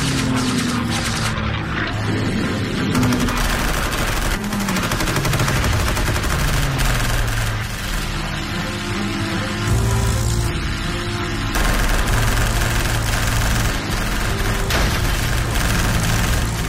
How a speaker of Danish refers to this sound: Det vi hører her, det er lydsporet fra en moderne kortfilm, der handler om en intensiv såkaldt dogfight under slaget om England i efteråret 1940 mellem en britisk Spitfire og en tysk Messerschmitt BF 109